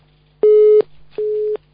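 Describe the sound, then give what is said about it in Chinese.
A telephone busy tone after a caller's line drops during a radio phone-in programme: two steady beeps of a mid-pitched tone, each lasting about a third of a second with a gap between, over a faint constant low hum. “哎，听不见了， 电话听不见了， 断电了。 电话听不见。”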